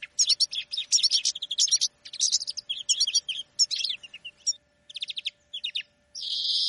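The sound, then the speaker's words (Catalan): Birds sing continuously in rapid, high-pitched chirps and trills, several overlapping phrases with brief pauses, ending in a sustained buzzy trill. No voices are present. “Suplicava, suplicava en silenci mentre sentia de fons el cant d'uns ocells.”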